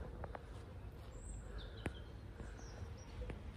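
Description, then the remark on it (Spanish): Small birds chirp faintly outdoors on a cold day just after rain has stopped, a few scattered high tweets spaced over a few seconds against a soft, damp-sounding ambient hush, with no one talking. “Voy a escuchar los pajarillos por ahí.”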